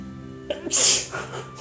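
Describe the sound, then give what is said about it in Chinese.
A single sharp sneeze: a short inhaled catch followed by a loud, hissy burst that trails off quickly, with no speech around it. “打喷嚏，不好意思。”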